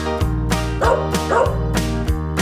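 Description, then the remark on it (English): Dog barks repeat in a steady, bouncy rhythm, about four sharp woofs, set against a loud, bright musical backing with sustained tones throughout. “Right, the dogs go as they chase and tease the cats.”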